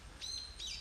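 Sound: birds chirping outdoors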